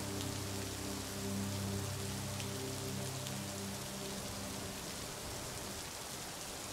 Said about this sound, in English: Each rumble of thunder is another reminder that on the other side of the storm is clearness.